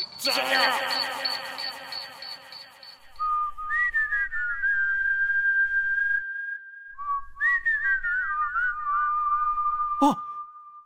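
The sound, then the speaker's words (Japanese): A person whistles a clear, sliding tune, with bending notes and a held pitch, over a low background rumble, after a brief burst of busier sound at the start. “この口笛はとあのキザ野郎”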